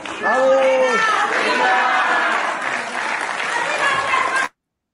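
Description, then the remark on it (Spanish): At a meeting of Morena senators, a crowd chants "unidad" (unity) repeatedly in unison while loud applause and cheering continue steadily underneath, a dense, sustained roar of voices and clapping that stops abruptly. “¿cómo ves el grito de unidad luego de esta reunión de los senadores de Morena”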